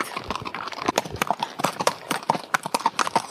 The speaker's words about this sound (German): So, wir kommen gleich aus dem Trab raus. Trab ist es, ja.